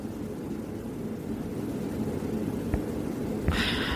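A steady, deep mechanical drone from a cargo ship's engine hums continuously as the ship sails on the Sea of Japan, with a brief hissing burst near the end and no voices.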